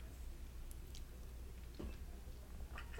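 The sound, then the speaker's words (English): A one-eyed cat named Jack chews on a charger cord, with a few faint, scattered crunching clicks over a low steady background hum, and no voices. “Sorry, my cat is chewing on my cord.”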